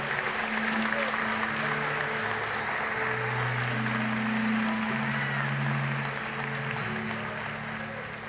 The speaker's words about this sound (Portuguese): Dê um aplauso bem forte a Ele, eu preciso que você faça isso.